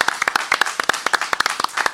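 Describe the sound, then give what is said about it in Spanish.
Audience applause welcoming a singer who has come to join the programme: many hands clapping in a dense, irregular burst of sharp claps, fairly loud and steady throughout, with no voices standing out. “Fuerte el aplauso.”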